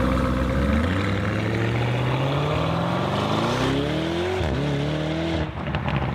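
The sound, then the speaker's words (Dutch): A loud Lamborghini engine, a 650 hp 4-liter Audi RS6 unit from the Volkswagen Group, revs up in one long rising climb, briefly drops, then surges again before easing off. No one speaks over the growl. “Maar 650 pk is best genoeg. 4 liter ja, het zijn gewoon Audi RS6-blokken.”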